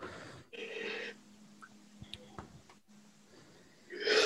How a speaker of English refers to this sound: no, I'm not yawning at you. I'm yawning at myself because I've had six hours sleep.